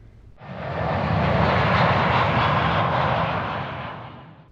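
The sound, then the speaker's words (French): A loud, steady roar of an airplane engine swells in quickly and holds as a broad, rumbling wash as a plane takes off from Bogotá bound for Paris at sunset, then begins to ease at the end. No one speaks. “Et quand mon avion a décollé, en fait, c'est quelque chose de magnifique.”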